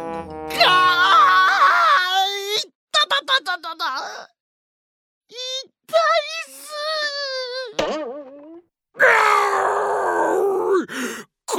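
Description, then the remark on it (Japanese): Two voices cry out and groan in pain after crashing into a reinforced glass wall while trying to escape, loud, in several strained, wavering bursts separated by short pauses, with no actual words spoken. “ガラスを破って逃げるぞ2人はガラスの壁に向かって全力で体当たりしましたがガーンという大きな音とともに2人は頭を抱えて悲鳴を上げました”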